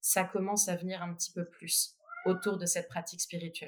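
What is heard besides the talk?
cat meowing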